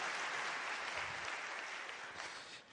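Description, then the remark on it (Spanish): Steady applause from a sizable audience welcoming first-time guests, a dense wash of clapping that holds strong throughout and eases slightly toward the end, with no voices standing out. “También un aplauso para ustedes, bienvenidos, qué bueno que están acá.”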